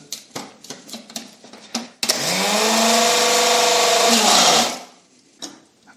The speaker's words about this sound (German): tue das in so einen kleinen Küchenmixer so, das werde ich jetzt schon mal zerkleinern